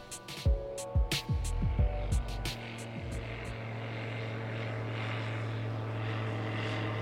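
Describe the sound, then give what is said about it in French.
A tow plane pulling gliders drones steadily overhead above the hills of the Basque Country near Espelette, France, its engine hum sustained and fairly loud, with a few sharp knocks and thumps early on before the engine tone settles into a continuous roar. “Les heures sont rythmées par le balai des avions à réacteurs qui tirent des planeurs.”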